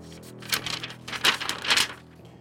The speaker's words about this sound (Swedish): Och då tar jag och sprättar kuvertet. Bläddrar fram frågan.